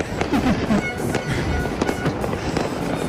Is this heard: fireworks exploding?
yes